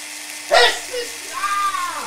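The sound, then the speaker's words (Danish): A voice imitates a Duval power drill: a sharp burst, then a rising whine with a steady tonal hum, like a motor spinning up and winding down, fairly loud. “vi har på en øh, boremaskine fra Duval.”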